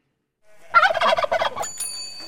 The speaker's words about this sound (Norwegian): Elsker den lille snutten der. Det er min favoritt. Ja, kalkun, eh, Jeg tror kalkunlyden er min favoritt-fuglelyd.